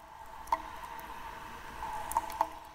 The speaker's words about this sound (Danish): Det drøber fra sten i loftet, fra de mange stalaktitter. Det drøber ud på søen, som regnvejr.